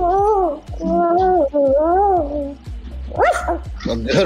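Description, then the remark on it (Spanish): A dog being taught to beg lets out a run of drawn-out, wavering whines and yelps, several in a row, rising and falling in pitch, ending with quicker, higher yips. “Mira, le, estoy enseñando de que tiene que ser eh, como rogar, like beg.”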